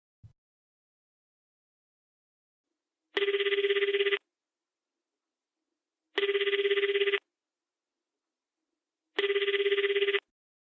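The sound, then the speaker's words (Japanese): A phone rings three times in an even rhythm, each ring about a second long and separated by silence. Nobody picks up and no one speaks. “おかしいな。出ない。相馬は富樫に電話をかける。”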